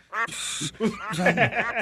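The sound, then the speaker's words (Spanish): A duck quacks loudly, a harsh, raspy burst followed by a few more nasal quacks, with a person's voice mixed in around them. “Ya, amarra el pato, por favor.”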